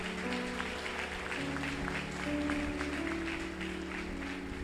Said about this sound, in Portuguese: Você não vai aplaudir a Deus por isso?